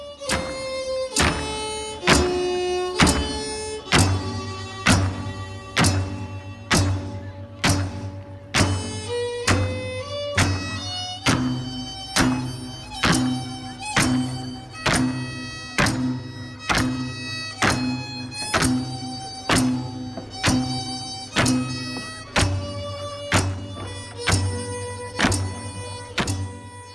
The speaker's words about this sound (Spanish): Cuando se escucha el zapateo de la danza en el cemento.